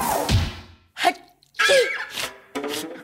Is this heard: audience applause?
no